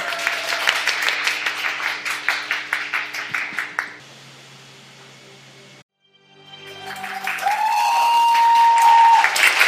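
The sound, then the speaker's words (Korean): An audience bursts into applause for about four seconds, the claps dense and loud with a slightly rhythmic pulse, then cutting off into a steady hiss followed by sustained tones. “박수를 청해드릴게요.”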